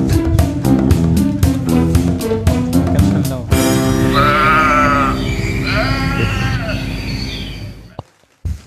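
Sheep bleat loudly in long, wavering cries, several overlapping calls following a short stretch of rapid rhythmic pulsing, then fading out.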